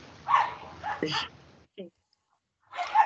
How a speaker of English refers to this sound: oh, my dog's very angry. I can hear him spinning in the background. Is that uh, Monty or Dave? It's Dave. Monty does not have the energy to do that.